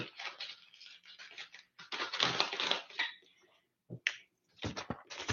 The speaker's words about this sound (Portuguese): Por isso que eu acabei de escrever aqui.